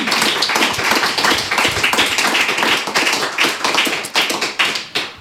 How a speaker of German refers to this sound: Ja, merci. Applaus für dich.